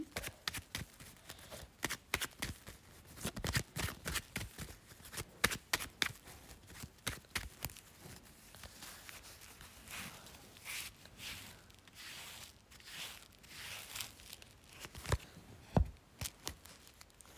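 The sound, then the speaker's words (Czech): Tarot cards being shuffled for a tarot reading about someone's love life, with repeated crisp riffling snaps and slaps in irregular bursts, easing into softer rustling of cards sliding together. No one speaks. “Já už se dívám na vaši fotku, míchám u toho karty a my se spolu podíváme, co nám Tarot řekne o vašem partnerském životě v letech.”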